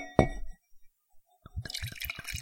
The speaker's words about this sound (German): Gast kriegt natürlich zuerst eingegossen.